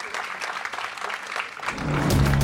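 A crowd claps loudly in a dense, continuous patter, swelling toward the end as a low, steady hum or cheering joins in beneath the applause, applauding the newly announced game title, Le jeu des mille rappés.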